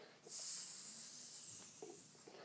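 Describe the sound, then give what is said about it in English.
A person hisses like a snake, a long steady breathy hiss starting abruptly and holding for about two seconds, with faint breath sounds near the end. “Speaking of snakes,”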